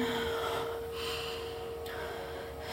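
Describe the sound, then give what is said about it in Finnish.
Two forceful, breathy exhales through the nose, each a short rushing burst of air, with a faint steady hum running underneath and no talking. “Hengitä ulos, saatana perkelee.”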